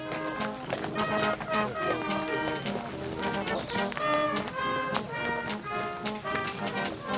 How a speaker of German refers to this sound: Ein früher Sonntagmorgen bei Bad Kloster-Lausnitz in Thüringen. Ein Festzug mit geschmücktem Pferdewagen zieht in ein Waldstück.